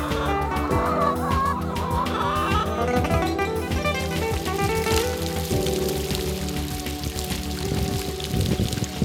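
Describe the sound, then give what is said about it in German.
Water from a fountain in front of the Niederwaldschlösschen splashes steadily, a continuous bright patter like pouring rain, with chickens clucking in the background and no one talking. “Wir sitzen jetzt an einem Brunnen vor dem Niederwaldschlösschen.”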